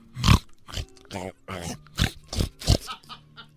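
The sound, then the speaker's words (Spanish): A voice imitates a pig, giving a run of about eight short, snorting grunts and oinks in an uneven rhythm, moderately loud, with no other sound behind them. “Y el señor se hincó a un lado del puerco y le besó y acarició la panza. Y nomás y el puerco.”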